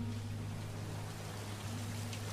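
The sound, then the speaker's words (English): Steady, even hiss of rain falling on a street in Cape Town, South Africa, in 1976, continuous and fairly soft, with a low constant hum running underneath. No voices are present. “There's, there's rain falling, some street lights, some lights on houses, and there's a car driving up the street.”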